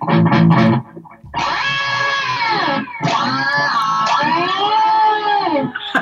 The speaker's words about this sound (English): You know, I was just messing with the uh, where we go the whammy pedal up an octave yep. and just I don't know if you can hear